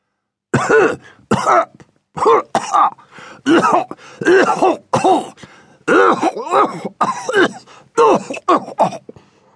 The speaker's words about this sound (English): How long have you had that cough?